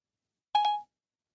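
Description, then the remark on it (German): Siri's ping tone: one short, bright electronic chime with a quick double onset, ringing for about a third of a second in otherwise silence, sounded after being asked to switch itself off. “Passiv-aggressiv. nur ein Ping senden”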